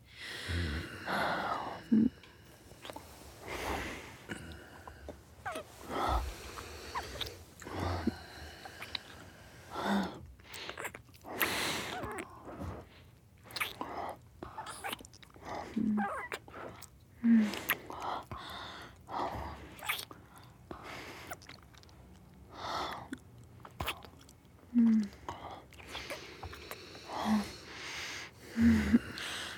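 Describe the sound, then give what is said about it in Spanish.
Wet kissing sounds with smacking lips and heavy breathing, broken by soft gasps in an irregular, intimate rhythm over about half a minute, as two people kiss passionately in a bedroom. “No ha pasado un minuto desde que entró al dormitorio y ya estamos besándonos apasionadamente.”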